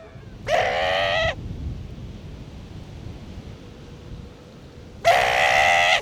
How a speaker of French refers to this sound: C'est un, cri de contact d'un jeune lion de mer australien pour appeler sa mère.